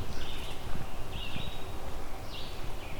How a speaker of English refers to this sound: Bit more urban noise background in this location. an American robin here. I just saw it fly across, it got much closer